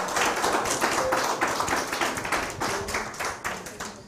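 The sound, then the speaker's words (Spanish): A crowd gives a strong round of applause to the Eternal for granting the Shabbat, many hands clapping in a dense, continuous patter that holds at a fairly even level for several seconds before tapering slightly. “Ya para ir terminando, le damos un fuerte aplauso al Eterno, al Santo Bendito sea por otorgarnos el Shabbat.”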